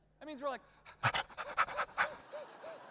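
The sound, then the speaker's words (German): A person imitates rapid, shallow panting to show how Americans breathe 18 times a minute, a quick run of short breathy huffs with a few voiced gasps, fairly loud, lasting a couple of seconds. “Amerikaner atmen 18 Mal die Minute. Das heißt, wir machen so.”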